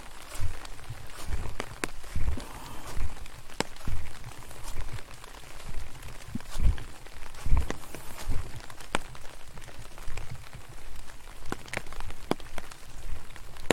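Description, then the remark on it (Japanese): Footsteps crunch steadily outdoors in an uneven walking rhythm, fairly loud, as someone walks toward a very small stream 20 to 30 steps ahead, with sharp brushing clicks from ground litter and a soft wet, rain-like patter behind them. “今ね、あと20歩、30歩先にね、ほんと小さい小川があるんですけど、それは、音を聞きに行きましょう。”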